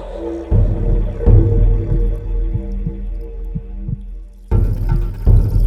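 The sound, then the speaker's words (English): A deep, steady drumbeat thumps like a heartbeat, low and resonant, with a droning hum underneath and a brighter swell of sound near the end. “The beat of a drum like a heartbeat the spirit of the universe.”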